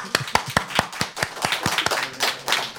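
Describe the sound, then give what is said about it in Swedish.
A few people clap their hands in a quick, steady rhythm, the sharp claps close and fairly loud, with no one talking. “Det tycker jag är värt en applåd.”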